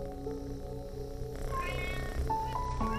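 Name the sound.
cats meowing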